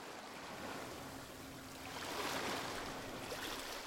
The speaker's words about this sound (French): Le bruit des vagues.